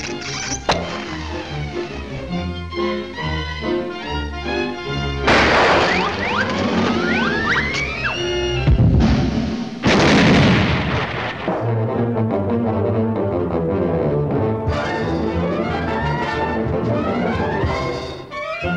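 Frantic, busy orchestral cartoon chase music plays loudly, punctuated by several sudden crashing and smashing sound effects partway through before the bouncy tune carries on.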